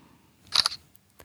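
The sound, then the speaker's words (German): A crisp synthetic smartphone camera shutter sound designed for a mobile phone: a quick double snap with a bright metallic edge, followed by a couple of faint ticks. Clear, with no voices. “Ja, es sind Auslösegeräusche, jedoch ganz besondere. Sie wurden alle für verschiedene Handys entworfen, denn wenn wir ganz still ein Foto aufnehmen, fehlt uns etwas.”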